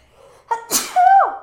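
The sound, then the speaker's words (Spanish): A single sneeze: a short sharp inhale builds into a loud, explosive burst that trails off into a brief vocal tail, with no talking around it. “Ay. Salud.”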